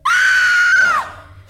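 A woman lets out a single loud, sustained scream of terror, high-pitched and piercing, lasting about a second before cutting off abruptly, close to the listener with no talking.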